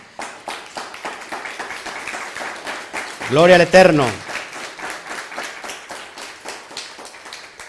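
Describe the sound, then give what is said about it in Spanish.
Steady applause from a group of people, given to all the nations, fills the whole stretch, dense and fairly loud, with a voice calling out briefly over the clapping midway through. “Pues Baruch Hashem, fuerte aplauso a todas las naciones.”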